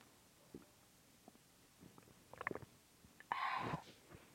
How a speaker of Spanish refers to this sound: Y Déjeme tomar agua así como los asiáticos que se ponen el micrófono en la garganta a ver si se oye chido.